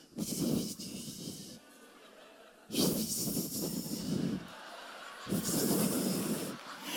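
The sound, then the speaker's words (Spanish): A person imitates a snake's hiss with three long, breathy hissing bursts separated by short pauses, fairly loud, with no words spoken. “¿Y tú sabes lo que hace la serpiente? La serpiente hace.”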